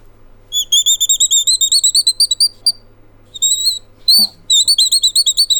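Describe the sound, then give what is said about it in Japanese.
A wooden bird call, a hexagonal block with a metal screw in its centre that is turned, squeaks out rapid, high chirping bursts that mimic birdsong, loud, in two runs separated by a short pause, with a soft thump in between. “鳥のさえずりのようなこれが鳴きのあの鳥の鳴き声に似た音を出せるグッズなんですけれども、うん、鳥と会話ができるんですよ、えー、鳥が鳴いててこっちでちょちょちょちょってやるとまた返してくれたりとかして”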